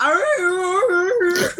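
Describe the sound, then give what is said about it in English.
A lone voice sings the siren's alluring song, an eerie, wailing tune: one sustained high note that wavers and swoops upward a few times, steady and fairly loud, then trails off into a breathy fade. “you have to sing the siren's song and it's something like.”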